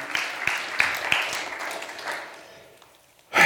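A group claps together in a steady patter that tapers off over a few seconds, with a few sharper individual claps standing out, followed by a brief louder burst at the end.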